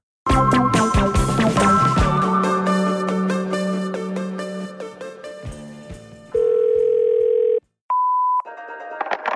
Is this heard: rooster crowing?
no